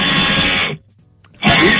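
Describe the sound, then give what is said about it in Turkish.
A motorized sewing machine, an overlocker, whirs loudly in a steady buzzing run, stops briefly for about half a second, then starts up again at full speed. “Geliyor mu? Bu overlock sesi gerçekten.”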